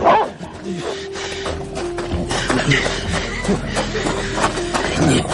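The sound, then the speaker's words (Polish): A large dog, let loose on private property, snarls, growls and barks ferociously, loud and continuous for several seconds amid scuffling noises, attacking a man and biting through his coat. “Ale, ale, teraz spuścili psa. Zbliża się, ale bydle.”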